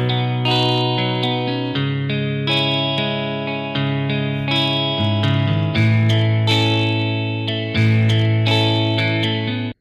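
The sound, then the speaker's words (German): Electric guitar chords ring out through heavy effects, sustained and shimmering with a chorus-like, slightly distorted tone, changing every second or two in a steady progression, loud with no voices. “Wenn ich die, da, die Gitarre, so. Das ist der erste Akkord. Das ist der zweite.”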